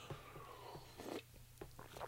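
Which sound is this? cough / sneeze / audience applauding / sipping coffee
sipping coffee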